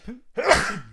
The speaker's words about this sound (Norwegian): En til. Prosit ganger to. Takk. Beklager det.